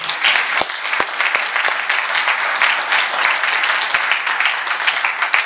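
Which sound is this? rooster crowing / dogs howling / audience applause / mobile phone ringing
audience applause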